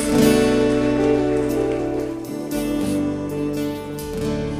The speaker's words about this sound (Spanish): ¿Alguien puede dar un aplauso fuerte a Dios y ponerse de pie? Ponte de pie, dale un aplauso fuerte a Dios.